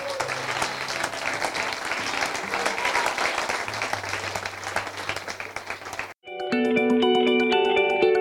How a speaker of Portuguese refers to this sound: Aplauda o Senhor Jesus.